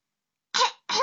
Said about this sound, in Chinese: …清了清嗓子，开始上课了。